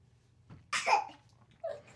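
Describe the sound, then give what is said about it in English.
A single sneeze: a short intake of breath, then a sudden sharp, hissing burst, followed by a brief quieter sound afterward. No one speaks. “that was a sneeze.”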